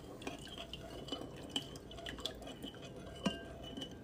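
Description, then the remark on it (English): A spoon stirs liquid with dissolving powder in a glass, with soft swishing broken by light, irregular clinks against the sides. Quiet and steady, with no voices. “Now there's something else you gotta do while I'm stirring this.”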